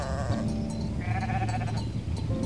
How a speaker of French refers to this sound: Un nouveau bêlement, puis un second, et ce fut tout un troupeau de moutons qui s'engagea sur le sentier à quelques mètres de lui.